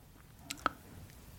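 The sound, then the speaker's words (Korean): Quiet chewing of sea snail (whelk): two quick wet, squishy bites in the middle of an otherwise hushed moment, with no talking. “예, 좀, 좀, 이렇게, 음, 좀 씹어줘야죠. 그쵸. 예. 치, 치아에게 또, 어, 기쁨을 주는 그런 식감이죠.”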